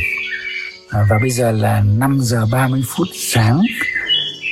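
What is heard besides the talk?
birds singing at dawn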